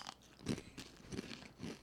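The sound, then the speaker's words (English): Crunching as crisp cinnamon churro chip strips are chewed, with several dry, crackly bites in a steady rhythm. The sound is soft and there is no talking. “Sweet, cinnamon, got a good crunch.”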